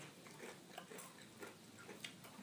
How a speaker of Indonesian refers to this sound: Hmm, ini kita lagi makan tortilla ya. Kedengeran banget.